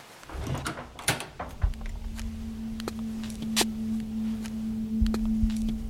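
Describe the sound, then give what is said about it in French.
The door of an old wooden house is opened with a series of sharp clicks and knocks from the latch and handle, followed by a steady low hum, fairly quiet, with no one speaking. “Donc euh, voilà, on ouvre la porte.”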